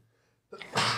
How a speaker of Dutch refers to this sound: Gezondheid. Weet je wat ze in Bosnië dan zeggen? Dit is de waarheid wat je spreekt. Als je spreekt en je gaat niezen, alle Joegoslaven, alsjeblieft, bevestig dit.